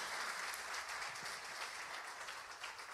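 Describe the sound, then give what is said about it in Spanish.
A crowd applauding steadily, a dense wash of many hands clapping at an even, sustained level with no voices standing out, the applause sending greetings to members who are on vacation. “So, con este aplauso le enviamos nuestros So we're going to send them our greetings with this applause.”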